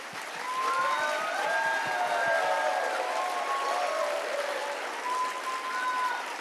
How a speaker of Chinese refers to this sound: 六十八岁了，什么都有了，而还在为别人在拼。我们给郭博士拍拍手吧。